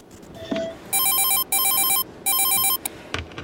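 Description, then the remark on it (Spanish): A telephone rings at the start of a 911 emergency call, in three bright, warbling electronic bursts, each about half a second long with short gaps, loud, followed by a brief click and a faint thump. “encontramos en internet una llamada que es, es un buen, un buen, una buena, eh, buen video que dice llamada 911 que no olvidarás.”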